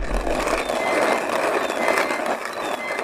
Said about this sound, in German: Und eine Kaffeemühle.